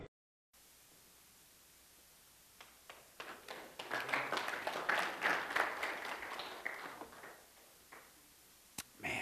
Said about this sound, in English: I don't want to add insult to injury, but the guy also had uh, stated something similar to another audience, and they started clapping just like that. And he said, I don't know why you're clapping.